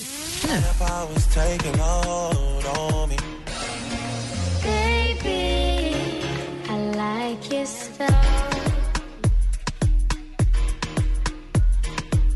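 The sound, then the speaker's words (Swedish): A dancehall pop song plays loud and up front, with a female singer's vocal line over warm chords and a steady, syncopated low beat that continues throughout. “Där hittar vi i topp … featuring … och …. Låten där heter …. Så här låter det i topp i USA.”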